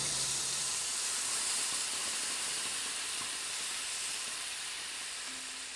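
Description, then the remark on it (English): Meat simmering in a vinegar sauce with white onion, garlic, parsley, oregano, cumin, black pepper and apple cider vinegar, cooking down for chilorio until the liquid thickens, giving off a steady, even sizzle and hiss that holds at a constant level throughout, with no talking. “And then you just let that cook until the liquid has become very thick and the meat has really absorbed it.”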